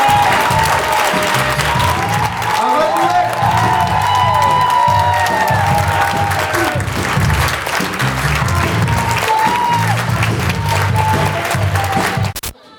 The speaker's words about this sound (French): Je vous demande s'il vous plaît de faire un tonnerre d'applaudissements pour la Benson.